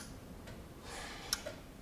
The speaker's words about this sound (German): Der Zeiger auf dem Gerät beginnt sich mit gleichmäßigem Tacken hin und her zu bewegen. Bioresonanztherapie nennt sich das Verfahren. Zusätzlich tickt eine Uhr an der Wand.